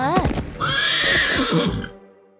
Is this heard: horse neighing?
yes